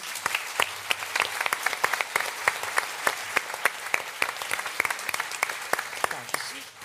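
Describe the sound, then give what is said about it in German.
An audience at a John Sinclair audio drama show applauds voice actress Kathi Karrenbauer steadily, many hands clapping in a dense, continuous patter with sharper individual claps standing out, holding at an even level before easing off at the end. “Trotzdem nochmal einen Applaus für Sie.”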